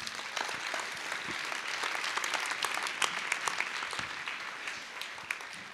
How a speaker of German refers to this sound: Deswegen vielen Dank, dass du so ehrlich erzählt hast. Das ist dein Applaus. Danke.